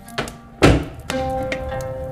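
A man leaving to go outside shuts a door with one solid thud, surrounded by a few lighter knocks and clicks. A faint low hum lingers underneath, and no one speaks.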